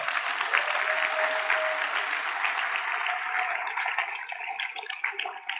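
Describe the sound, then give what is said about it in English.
During a church sermon, a crowd claps for the word of God in a dense, sustained burst of applause that carries through the whole stretch and thins out slightly near the end, with no talking over it. “I think we should clap for the word.”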